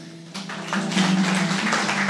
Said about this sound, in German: Ein Applaus.